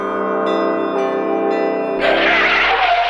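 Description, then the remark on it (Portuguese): A huge bronze bell, over 6 metres tall, over 6.5 metres in diameter and weighing 222 tonnes, rings with a deep, sustained hum, struck again roughly every half second, before a broad hiss of noise washes over the lingering tone near the end. “No fim, o sino de bronze ficou com uma altura de mais de 6 metros e um diâmetro de mais de 6 metros e meio, tudo isso com incríveis 222 toneladas.”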